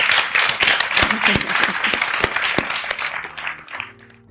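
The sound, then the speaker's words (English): An audience at the 2016 London Lit Weekend applauds to thank speakers Frances Wilson and Benjamin Markovits, with dense, steady clapping that stays loud for several seconds, then thins out and fades as the clapping tapers off at the end. “If you could join me in thanking our speakers, Frances Wilson and Benjamin Markovits.”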